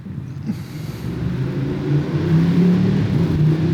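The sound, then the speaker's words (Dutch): A car engine rumbles steadily, its low drone building in loudness as the vehicle moves through street traffic on the Chenals Allee, with no voices present. “Moet je opletten op het verkeer.”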